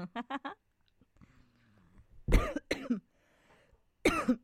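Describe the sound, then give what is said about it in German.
A few quick, short bursts open, followed by a pause and then three loud, harsh coughs, spaced apart, with faint background murmur between them. “huste doch nicht doch, aber ich schneide es raus.”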